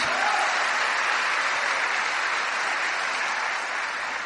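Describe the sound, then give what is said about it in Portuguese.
A church audience applauds the Lord Jesus, a sustained, dense, even wash of clapping that holds steady for several seconds and fades slightly at the end, with no voices standing out. “Aliás, quando o diabo é usado, pode aplaudir o Senhor Jesus.”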